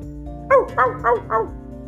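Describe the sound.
A person imitates a dog barking: four quick, evenly spaced woofs, each with a voiced, slightly sliding pitch, over a steady low background hum.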